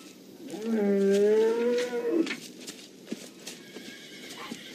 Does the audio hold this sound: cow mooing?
yes